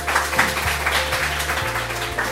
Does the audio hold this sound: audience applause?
yes